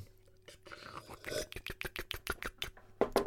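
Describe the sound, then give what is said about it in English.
A voice imitates gulping a drink: a quick series of wet mouth clicks and swallowing noises, roughly ten in a steady rhythm, with soft breathy sounds before them. “that was the worst fake drink I've ever heard.”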